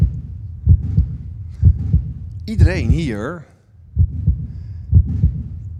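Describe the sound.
A steady heartbeat thumps in low double beats at a resting pace, pausing briefly while a voice speaks over it, then resuming its even rhythm.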